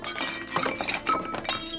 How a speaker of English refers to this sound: He searched the kitchen for food, breaking dishes along the way.